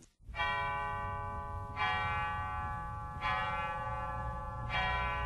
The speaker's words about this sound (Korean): 새벽 4시 30분이면 어김없이 남원 지역에 종소리가 울려 퍼집니다. 남원교회 마당에 있는 오래된 종탑에서 울려 나오는 종소리는 지역에 교회의 존재를 알리고 하나님의 사랑을 전파하는 소리로 아름답게 울려 퍼집니다.